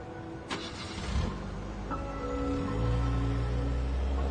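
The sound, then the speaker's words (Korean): A car engine cranks and catches, then settles into a steady, rising hum as the vehicle pulls away, continuous with a low rumble throughout. No one speaks. “반장님, 이현창이 출발했습니다.”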